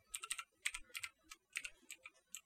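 Quick, uneven keystrokes tap on a computer keyboard as someone re-enters a password, about a dozen short clicks in bursts with brief pauses. No one speaks.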